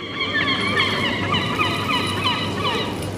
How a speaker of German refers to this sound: Die Möwen. Die Möwen sind musikalisch. Die Möwen geben, aber Möwen erzeugen überall auf der Welt Musik. Im Norden wie im Süden.